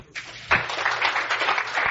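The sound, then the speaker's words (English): An audience breaks into applause after a brief quiet moment, the clapping swelling into a dense, steady wash of many hands that carries on at an even level. “Give yourselves a big round of applause.”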